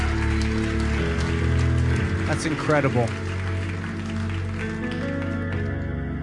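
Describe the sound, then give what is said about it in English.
Steady audience applause at a church service for someone who decided to follow Jesus, a dense crackle of many hands clapping that lasts the whole stretch, with a man speaking briefly over it partway through. “Would you guys give him a huge round of applause?”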